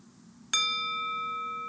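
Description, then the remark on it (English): A single strike of a meditation bell, rung to close a mindfulness practice, with a bright attack that settles into a steady, ringing tone of layered partials, sustaining and fading only slightly. No one speaks. “I'll go ahead and um, ring the bell to close the practice.”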